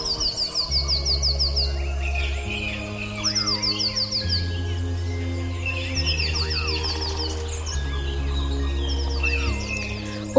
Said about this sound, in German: Von überall her nahm er das Rauschen der Baumwipfel im Wind wahr und das Gezwitscher der Vögel aus der Ferne, die mit anderen in seiner Nähe im Chor sangen.